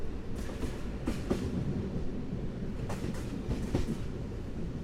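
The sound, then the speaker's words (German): A train rumbles steadily along the rails in Transylvania with a dense low roar, broken by several bright clacking transients from the wheels passing over track joints. “Als ich fünf Stunden später aufwache, hat der Zug Transsilvanien bereits verlassen.”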